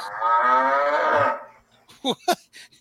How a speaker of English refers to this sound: is there two cows now? Yeah, there's oh, two.